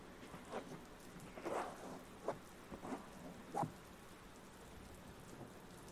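Steady autumn rain hisses throughout, broken by several brief, low rumbling bursts of thunder that swell and fade over a few seconds. No voices.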